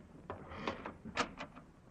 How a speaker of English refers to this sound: So close my bags and... I'll answer the door, Rochester.